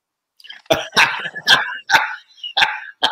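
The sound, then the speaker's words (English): A terrier barks in a rapid, uneven series of six or seven sharp, high yaps, each short and loud with brief gaps between them, and no talking over it. “Terrier.”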